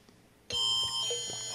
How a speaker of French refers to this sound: Oh non, pas c'est alarme-là. Je l'ai entendu quand trois heures du matin